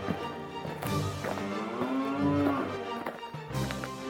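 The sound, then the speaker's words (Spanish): Oxen moo in long, low, droning calls that bend slightly in pitch, with a short gap before another lowing begins near the end. No one speaks. “huir del poblado hacia el rancho de Doña Santos Jiménez, cargando todas sus pertenencias en un carro jalado por bueyes.”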